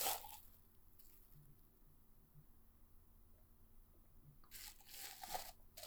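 Someone takes a drink of water during a quiet pause, with a soft crinkly rustle at the start and another cluster of squishy, crackling handling noises near the end. Nobody speaks.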